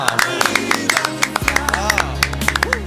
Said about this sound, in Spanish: Aplauso de pie.